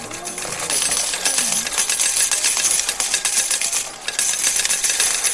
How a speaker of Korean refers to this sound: 슬롯 머신에서 동전이 쏟아지기 시작했다.